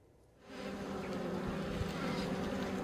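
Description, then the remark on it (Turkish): A steady, dense buzzing of many honeybees around a hive swells in after a brief quiet start and holds at an even level, a continuous droning hum with no voices; it is the end of January and the bees are still active, not yet in winter rest. “Ocak ayının sonundayız ama Arılar halen daha kış uykusuna yatamadı.”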